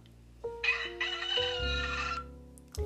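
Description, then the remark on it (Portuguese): A rooster crows once, a loud, drawn-out cock-a-doodle-doo with rising and falling pitch, set over a low steady background hum. “Um pouco depois, o galo cantou”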